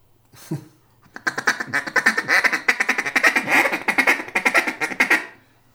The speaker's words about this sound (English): I mean, you got a world class duck calling guy, and you ask him to blow a duck call, and he sticks the first note. Stick. Yeah, you stuck the oh first note.